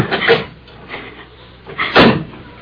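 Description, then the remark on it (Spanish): A car door being opened by the driver so passengers can get out: a mechanical clunk of the latch, then a louder, fuller thud about two seconds later, with quiet rustling in between and no voices. “Voy a abrirles la puerta para que se bajen.”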